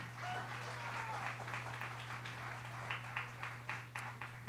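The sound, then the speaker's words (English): A crowd applauds steadily for three assistants called up to the front, many hands clapping in a dense wash that thins toward the end into more distinct individual claps, with a constant low electrical hum beneath. “Give these guys a big round of applause for me.”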